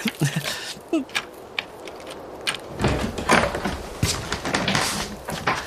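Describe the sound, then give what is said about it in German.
A cottage door is unlocked with a key and opened in freezing cold: a few sharp metallic clicks and rattles of the key and latch, then a heavier scraping rumble as the door swings, with no talking. “Lass uns mal reingehen, ehe wir von der Tür festfrieren. Wo ist denn nur der Schlüssel? Ah, hier! Endlich gefunden!”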